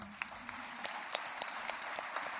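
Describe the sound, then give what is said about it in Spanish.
An audience applauds steadily for the sailors of the Vila de Pitanxo, a dense wash of many hands clapping with scattered sharper claps standing out, sustained at an even level throughout. “Eh, primeiro, un aplauso por todos eses mariñeiros do Vila de Pitanxo.”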